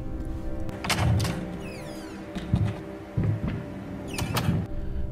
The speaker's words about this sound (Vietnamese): tiếng cửa tiệm tạp hóa mở ra.